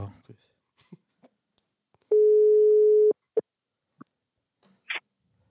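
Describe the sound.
A telephone ringback tone on a call: a single loud, steady, mid-pitched electronic beep lasting about a second, with a few brief clicks and faint voice fragments before and after.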